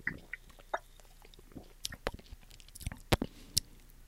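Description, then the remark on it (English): Chewing of a crunchy key lime Kit Kat wafer candy bar, with irregular crisp crunches and wet mouth sounds spread across a few seconds, fairly loud and with no talking. “Hopefully, I'm, it's not crunchy like a Kit Kat.”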